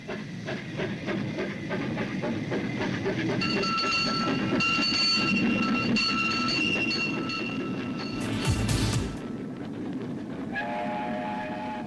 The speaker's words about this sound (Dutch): Als in vervlogen tijden rijdt dit trammetje driemaal per dag heen en weer tussen Doetinchem en Doesburg.